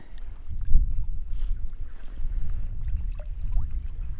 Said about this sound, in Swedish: Det är någon lite trängre passage och, och, och, ja, det är nog nästan bara fåglar och sen våra eh, paddeltak som, som hörs här. Annars är det helt tyst. Lite vind men bara så att det svalkar lite.